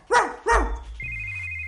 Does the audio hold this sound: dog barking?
yes